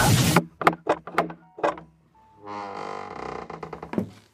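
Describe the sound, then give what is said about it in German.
A burst of rattling is followed by several sharp metallic clicks as a bolted door is unlocked, then a drawn-out creaking whine as the door swings open, fairly loud. “Seit wann verriegelst du denn deine Tür?”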